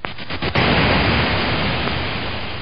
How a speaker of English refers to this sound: Most classic studios also have generators to create square waves and white noise.